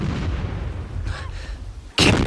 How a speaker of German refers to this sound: Joy lässt die Kanonen sprechen. er ist an Bord der schwarzen Geier.